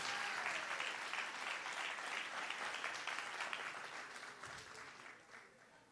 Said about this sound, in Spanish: Alguien que le dé un aplauso fuerte a Jesús.